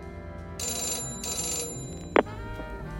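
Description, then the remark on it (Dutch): A telephone rings in two bright electronic bursts, each about a second long, followed by a short click, with steady tonal music playing underneath. “Er komt een ander bedrijf en jawel, een paar dagen later het telefoongesprek.”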